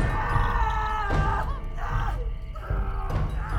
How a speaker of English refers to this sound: But suddenly, Gonzalo heard a scream.